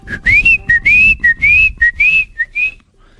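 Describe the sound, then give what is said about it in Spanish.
A person whistles an imitation of a little bird: about seven quick, high chirps, each sliding upward, in a lively, slightly uneven rhythm, with no talking over them. “Ayer estaba aquí, yo afuera, y oí un pajarito que venía y me hacía...”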